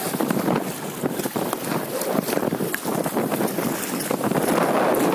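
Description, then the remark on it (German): Steady, rushing water noise from a passing ship's wake, with waves churning and splashing and a gusty wind rumble throughout; no one speaks. “Quasi auf die Wellen der vorbeifahrenden Schiffe warten.”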